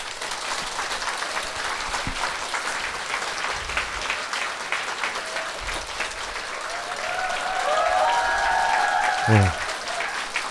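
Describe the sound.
Loud, vigorous applause from an audience fills the whole stretch, a dense wash of many hands clapping steadily, given for a Buddhist monk before his next sermon, with a few voices and a brief tonal sound rising near the end.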